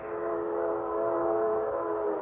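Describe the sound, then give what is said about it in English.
A train whistle blows one long, steady, sustained note with a rich, layered tone, holding at an even loudness for a couple of seconds with no talking. “Oh, that train whistle. It's been driving me bats all morning.”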